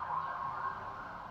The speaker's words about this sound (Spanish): deja que pase la ambulancia